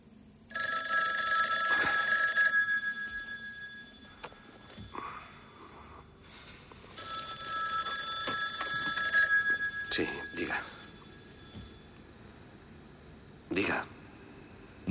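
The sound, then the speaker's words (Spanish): A telephone in a motel room rings twice in long, bright, trilling bursts separated by a short pause, fairly loud, followed by faint rustling and a brief breathy sniff. “está descansando en la cama del motel con los archivos a su lado cuando suena el teléfono.”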